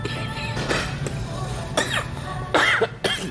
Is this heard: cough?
yes